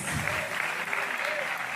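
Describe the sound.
A steady wash of applause from a crowd, dense crackling claps filling the whole short stretch at an even level, with faint voices mixed in underneath.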